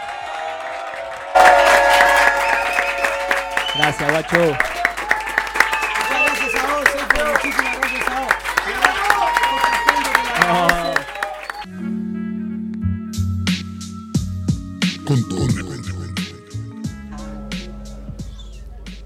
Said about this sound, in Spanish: La gente quedó muy arriba, no podemos hacer calmar a todo este público que está aquí en Divina Gloria en Paralel 169.